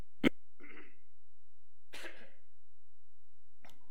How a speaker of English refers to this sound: And let me cough again.